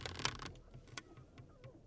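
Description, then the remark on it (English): A warped wooden chair creaks loudly and groans as a man sits on it, with a cluster of dry creaks at first, then a few quieter, scattered creaks afterward, otherwise quiet. “It creaks loudly as he sits upon it.”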